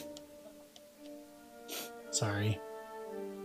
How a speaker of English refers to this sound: Blowing my nose.